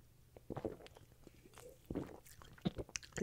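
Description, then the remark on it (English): Quiet mouth sounds of someone sipping a sour green apple drink: a few short wet slurps and lip smacks spaced irregularly, with faint breathy noises between them. “Sip, sip.”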